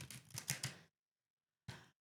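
A deck of Angel Guide Oracle cards by Kyle Gray is shuffled: a quick, crisp flurry of papery flicks for about a second, a brief silence, then one short final riffle.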